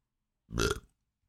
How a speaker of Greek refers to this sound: Μπράβο αυτό. Ε, ναι. Γιατί δεν είχαμε ρευτεί στο προηγούμενο.